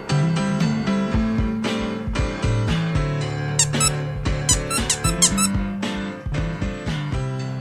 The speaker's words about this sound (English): What's up with Diesel? Diesel won't let me play with his squeaky toy anymore.